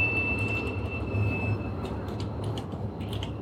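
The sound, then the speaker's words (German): A tram rumbles past with a steady low rolling drone, while a thin, high whistling squeal from its wheels rings out and then fades, joined by brief metallic screeches near the end. “Das war die elektrifizierte Pferdekutsche, oder wie war das?”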